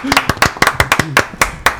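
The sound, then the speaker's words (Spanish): Brisk, sharp audience clapping at a show host's request, about a dozen loud slaps in under two seconds with a slightly uneven rhythm, while a faint voice sounds briefly beneath the claps. “¡Aplaudí! ¡Aplaudímelo!”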